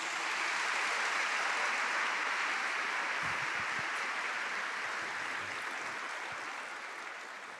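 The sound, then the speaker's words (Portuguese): An audience claps in praise to Jesus, sustained, dense applause that fills the room steadily for several seconds, then begins to taper off toward the end. No one speaks. “Você pode bater palmas a Jesus essa noite por isso.”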